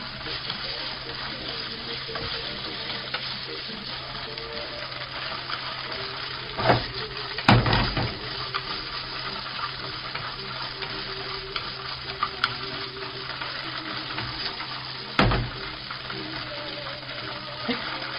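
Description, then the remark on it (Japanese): A piece of thick deep-fried tofu (atsuage), cut up, frying in oil in a pan until its white cut sides brown all over, a steady dense sizzle and crackle throughout, with a few sharp clatters of a utensil stirring against the pan. “油揚げの切った断面の白いところにに全体に焦げ目がついてきたので次にゴーヤを入れます”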